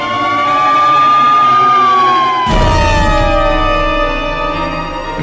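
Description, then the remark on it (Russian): An ambulance siren wails loudly in a slow, sweeping tone as the ambulance pushes through traffic jams, rushing to intensive care; about halfway through a heavy rumble of passing traffic joins it as the siren glides lower. “Подвой сирены, расталкивая машины в пробках, скорая устремилась в реанимацию.”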